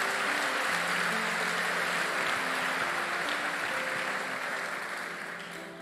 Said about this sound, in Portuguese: Se você crê e recebe, aplauda o Senhor.